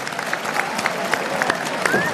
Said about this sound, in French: Vous pouvez applaudir